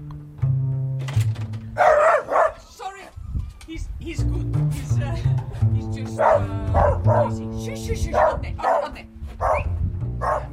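A dog barks repeatedly in short bursts, some in quick pairs, over a steady tonal hum that runs through the whole stretch.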